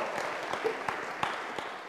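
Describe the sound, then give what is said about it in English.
A church audience at Sideris claps for the band in a steady wash of applause, dense overlapping hand claps with a few sharper individual claps standing out, at moderate loudness with no talking over it. “Let's uh, give a round of applause to the band because he lives.”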